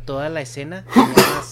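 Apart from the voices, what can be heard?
sneeze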